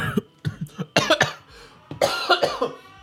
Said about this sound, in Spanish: Pero, o sea, un laboratorio clínico tosiendo, eso es malo y casi me ahogo. O sea, fue como, o sea, como toser para adentro, que nadie lo mire raro, o toser pasito, no, no sé si usted le ha tocado, es como...